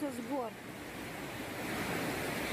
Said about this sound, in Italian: ruscelli d'acqua che scorrono dalle montagne. Via Roosevelt e Ignatenko sono state allagate.